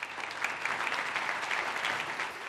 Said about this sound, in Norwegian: Litt applaus, men likevel.